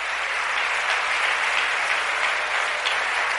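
Loud, sustained applause from an audience for 'the one who lives', a dense steady wash of many hands clapping with no pauses and no voices rising above it.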